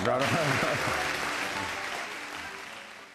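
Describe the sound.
A crowd applauds after a cooking demonstration in a dense, steady patter of clapping that slowly fades, with voices talking over the first half.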